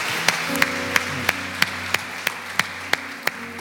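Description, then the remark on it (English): Audience applause for three individuals who raised their hands settles into steady, rhythmic clapping, about ten sharp claps evenly spaced over a constant wash of noise, with low sustained tones humming underneath. No one speaks. “Can we give these three individuals that raised their hand a huge round of applause?”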